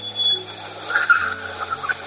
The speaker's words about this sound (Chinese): 我先给你们听一下树懒的声音。 我真的完全没有听过树懒是啥声音。